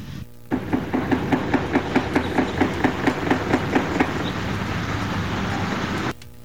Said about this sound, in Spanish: Vamos a escuchar lo que ocurrió ayer allá en, en Cocoyoc, Yautepec. Vamos a escuchar. Están agarrando balazos. No. Están agarrando. balazos allá abajo en la gasolinería.